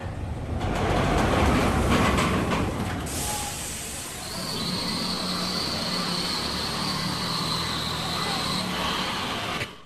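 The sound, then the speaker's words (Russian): A loud, continuous mechanical rumble of an amusement park ride, like a train roaring along rails, with a steady high whine entering midway and persisting until it cuts off. “А это вы только что услышали грохот аттракциона, который называется «Кричащий кондор».”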